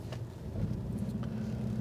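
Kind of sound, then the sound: vehicle, car driving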